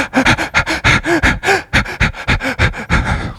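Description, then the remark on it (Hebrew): A person demonstrates rapid, shallow, panicked breathing, the breathing of fear: about a dozen quick, slightly irregular in-and-out gasps in a steady flurry, with no talking. “כזה, נשימה של פחד.”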